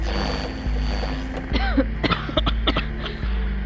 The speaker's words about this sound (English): hey, can't you, I don't know, share your oxygen or something? She's hacking up a lung.